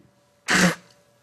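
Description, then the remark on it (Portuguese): A single sharp, loud human sneeze, bursting out abruptly and cutting off after about a quarter second, with quiet background before and after. “desculpe, eu, embora tenha gente que não acredite, eu ainda sou um ser humano e espirro e faço outras coisas também.”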